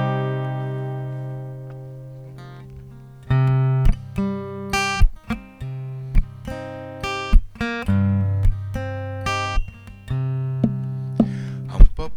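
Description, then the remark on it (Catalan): A gentle instrumental introduction to a reinterpreted habanera song, with sustained harmonic tones and a steady, lilting pulse of plucked or struck notes, played alone without any voices. “Eh, que, que en tenim moltes ganes tot l'equip de poder escoltar aquesta sí, ei, ei. reinterpretació de les avaneres.”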